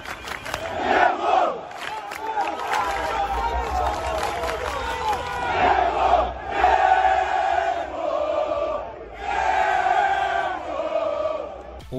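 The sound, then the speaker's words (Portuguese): Boca Juniors football supporters chant loudly and continuously in a stadium during the Copa Libertadores, a massed crowd of voices sustaining a rhythmic, swelling song with brief dips in volume, and no individual speech heard. “Como essa da torcida do Boca Juniors?”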